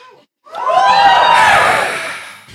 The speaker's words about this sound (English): Big cheer for boiling seawater.